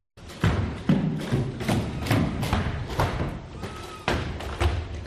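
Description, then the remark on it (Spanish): Heavy feet of a human-sized robot thud repeatedly onto two wooden platforms as it jumps between them, placing one foot on each, a series of loud impacts in an uneven rhythm with a rattling, reverberant tail after each landing. “Un robot del tamaño de un humano salta apoyando un pie en cada tarima.”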